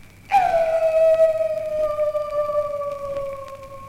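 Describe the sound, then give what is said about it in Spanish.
A wolf gives a single long, mournful howl that rises abruptly, then holds a steady, slightly falling pitch for several seconds. Fairly loud, with no talking over it. “Recostado en un árbol, al lado del camino, había un feo animal con cara muy triste, quejándose así.”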